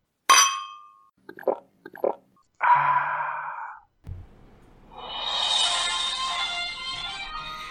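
A bright clink of glasses touching in a toast rings out once, followed by a few soft knocks and then a steady fizzing hiss like a drink being poured. No one speaks.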